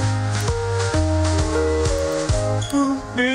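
AI-generated music plays loudly and steadily, with sustained, voice-like tones that shift pitch every half second or so over a rhythmic accompaniment, singing without any recognizable words.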